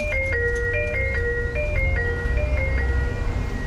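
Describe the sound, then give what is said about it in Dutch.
A bright electronic doorbell chime plays a stepping melody of clear tones, repeating steadily over a low, continuous rumble like an idling engine, with no voices. “oh, een deurbel.”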